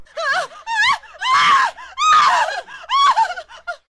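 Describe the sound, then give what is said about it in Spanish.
A woman screams in fright as an older man enters the room, a rapid series of shrill, high-pitched cries with brief gasping breaks between them, loud, with no speech. “Un hombre mayor entra a la habitación y grito.”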